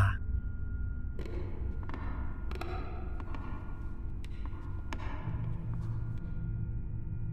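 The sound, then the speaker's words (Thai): Slow footsteps of a man thud across the wooden floor of a barn, each step ringing out with a short hollow echo over a steady low rumble, roughly a step every second. “เสียงเท้าของผมเหยียบไปตามพื้นไม้ ดังก้องเป็นระยะ แต่ยังไงเสียงร้องก็ยังดังจนกลบเสียงพื้นไม้อยู่ดี”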